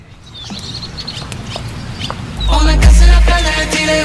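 After a couple of seconds of faint, chirpy high sounds, a pop song kicks in loudly with heavy bass and a young woman's singing voice carrying sustained melodic notes.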